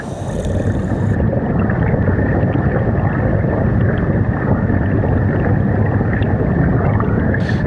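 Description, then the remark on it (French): A dull, muffled underwater rumble of moving fluid, recorded with a hydrophone, steady and enveloping, with dense low churning and a faint hiss above it, continuing unbroken with no voices. “Quand on met un coquillage sur son oreille à la plage, on entend un bruit, on se dit c'est la mer, et donc c'est un bruit de fluide comme ça assez sourd, c'est évocateur, mais en fait ces sons, ils, génèrent une inquiétude.”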